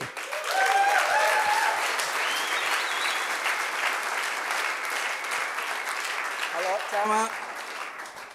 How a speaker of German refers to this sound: Herzlichen Applaus